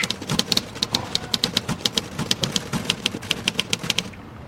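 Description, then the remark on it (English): Typewriter keys clack in a fast, uneven burst of sharp strikes as someone writes, fairly loud, with a low mechanical rumble underneath and no talking. “Like you'll be when you start punching those keys.”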